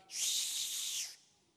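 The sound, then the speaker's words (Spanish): A person lets out a single breathy, airy whistle lasting about a second, steady and fairly loud, then it cuts off into quiet. No one is talking. “Empieza a silbar.”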